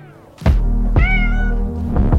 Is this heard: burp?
no